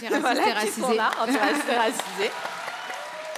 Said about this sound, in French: Ce sont des longs applaudissements, mais ils les méritent.